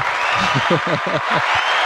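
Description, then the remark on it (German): A short burst of cheering in a studio as a wasp finds its way out through the gap of a window: several voices whoop and shout in quick, rising pulses over a steady hiss of clapping-like noise, lasting about two seconds at a fairly loud level. “Ein Tosen geht hier durch die, durch die Runde, man weiß noch nicht wo.”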